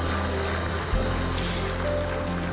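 Morning audience applause for all those who put their hands up, online and in person: a dense, steady wash of many hands clapping that holds evenly throughout, with a low sustained hum underneath and no voices.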